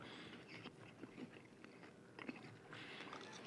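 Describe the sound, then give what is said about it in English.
Chewing of strong mint gum, with moist smacking and occasional crunchy clicks in an uneven, steady rhythm, heard alone with no one talking. “Wait, do we chew They're them? gum. Yeah, they're gum.”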